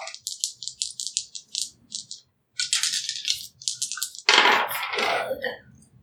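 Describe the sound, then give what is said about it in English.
Dice rattle in quick clicking bursts, fairly loud, then a brief pause before a longer, harsher clatter as they tumble and settle. No one speaks. “I'm trying to think of what you would roll for that.”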